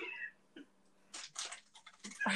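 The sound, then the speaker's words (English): A dog makes a string of short, scrappy noises, a brief whiny sound followed by several raspy, breathy bursts in quick uneven succession. “This fucking dog.”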